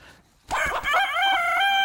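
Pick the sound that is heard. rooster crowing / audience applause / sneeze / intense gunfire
rooster crowing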